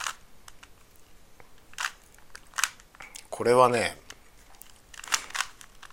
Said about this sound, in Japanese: この音が好きっていうのもあるね回すこの音がねこれはなんかあの中国製のねスピードキューブですけどこっちにねその純正のやつが純正のキューブがあるんだけど純正キューブは独特の音がするよね